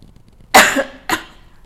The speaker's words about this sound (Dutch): Oh, ik moet hoesten. ik weet niet waarom. Ik ga nog een keer hoesten. 3, 2, 1.